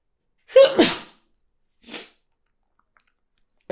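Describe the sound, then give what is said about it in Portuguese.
One loud sneeze bursts out with a voiced 'ah' leading into a sharp explosive rush, followed by a brief softer breath a moment later and then quiet. “já vou espirrar, desculpa.”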